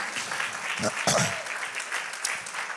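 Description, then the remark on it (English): An audience claps hands together unto the Lord in a dense, steady, fairly loud burst of applause, with faint voices mixed underneath. “Clap our hands unto the Lord for them.”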